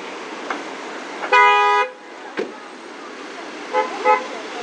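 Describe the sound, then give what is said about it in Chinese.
A car horn blares in one sustained, harmonic-rich honk of about half a second over steady traffic rumble at a street intersection with a red light, where cars and non-motor vehicles share the road, followed later by two short, fainter beeps. “哇塞，刚才那一个刹车真的是吓我一跳，而且就还有汽车的鸣笛的声音，让我觉得会无比的刺耳。”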